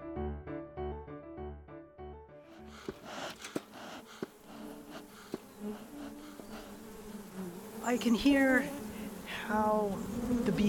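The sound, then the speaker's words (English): A short musical passage gives way to the dense buzzing of many bees crowded together inside a hive, a steady droning hum with occasional clicks and rising, warbling tones near the end. “are behaving, like if they're agitated, like there's you know other bees trying to get in the hive, or if it's too crowded, or they're too hot or too cold, um, the volume goes up.”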